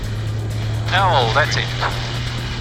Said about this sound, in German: man hört das Elektroflugzeug im Hintergrund leise brummen